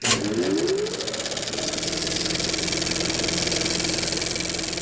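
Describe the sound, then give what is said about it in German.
An old cinema film projector from the silent film era rattles steadily, a fast, even mechanical clatter with a whirring hum underneath, staying loud and constant throughout with no voices. “Aber nicht nur das, auch die alten Projektoren konnten ganz schön rattern.”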